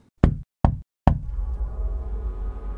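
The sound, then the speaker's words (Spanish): Three firm, evenly spaced knocks on an office door, loud, followed by a steady low background hum that lingers after the last knock. “Finalmente, después de lo que había parecido una eternidad, visualiza la oficina del comandante. Frena unos segundos para recuperar el aliento y golpea”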